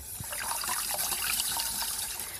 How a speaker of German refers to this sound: Dazu nehmen wir das Lab-Wassergemisch, was wir vorhin gemacht haben, und gießen das möglichst rasch in den Topf ein. Das sollte man nicht zu lange rühren. Ich mache das jetzt ziemlich schnell.